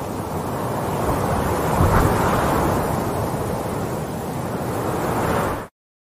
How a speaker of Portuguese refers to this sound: Minha Nossa Senhora, o vento eterno aqui passa e leva você para longe daqui.